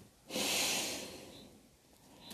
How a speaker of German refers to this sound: Sie atmet zuerst tief ein und dann wieder aus.